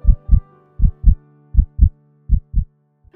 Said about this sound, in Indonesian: Membuat Robert memegang kepalanya saking gak tahan, terasa sakit sekali jantungnya berdetak sangat kencang sampai ia dapat mendengarnya.